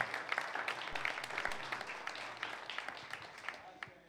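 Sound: church audience applause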